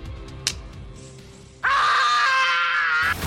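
Macaulay Culkin as a boy lets out a single loud, sustained scream lasting about a second and a half, high and harmonic, after a brief quiet stretch with a faint knock near the start. The scream was unleashed 31 years earlier.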